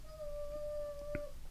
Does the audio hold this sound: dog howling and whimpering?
yes